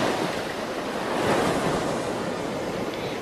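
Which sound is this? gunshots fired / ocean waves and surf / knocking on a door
ocean waves and surf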